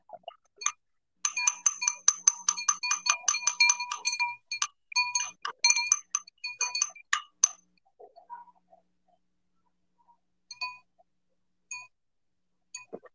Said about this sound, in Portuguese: Você tá batendo na taça? É.